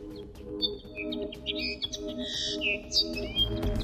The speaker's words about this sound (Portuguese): O cantar do Pinta Roxo, para ouvir daqui a pouco na rubrica Os Nossos Animais Selvagens.